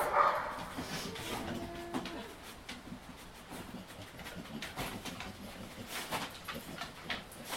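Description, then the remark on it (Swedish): A dog sniffs in quick, repeated bursts of breathy snuffling, moving around as it searches for a scent, with a faint whine at the start. “Man hör ju i alla fall att man nosar.”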